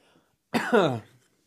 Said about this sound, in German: Gesundheit. Danke.